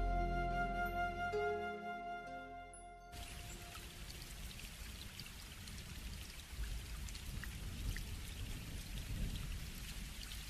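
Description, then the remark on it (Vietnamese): After a brief musical passage fades out, steady rain takes over, a dense continuous patter of drops beginning to fall on a house roof, moderately loud, with no voices. “những hạt mưa đã bắt đầu lợp đột trên mái”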